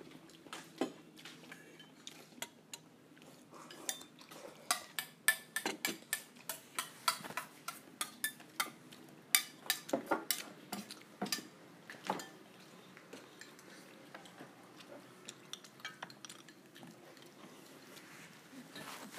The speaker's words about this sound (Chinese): 音频四：安静的饭桌。一家人吃饭不说话。